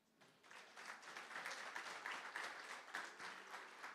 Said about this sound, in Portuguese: Aplauda Jesus.